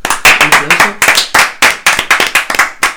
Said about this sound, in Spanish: Un aplauso, por favor